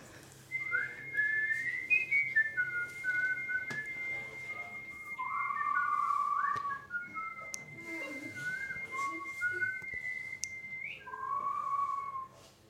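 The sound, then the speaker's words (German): Several people whistle together, a sustained high note held throughout while other whistlers add wavering, sliding tones around it, fairly loud and continuous, with no talking. “Dann hätte ich vielleicht gerne mal die Pfeifer.”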